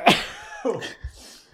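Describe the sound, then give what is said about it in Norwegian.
A sudden, loud sneeze bursts out, followed by a short voiced exhale and a faint sniff as it trails off. “Prosit.”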